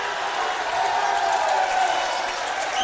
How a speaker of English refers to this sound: Listen to the round of applause coming from the Hastings student section.